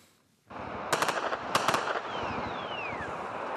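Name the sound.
gunfire exchange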